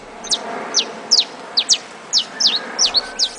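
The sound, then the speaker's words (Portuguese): A saffron finch sings a rapid series of short, bright, high-pitched chirps, about a dozen notes in quick irregular succession, clear over a steady low background hiss. “Demos três opções: o Canário da Terra,”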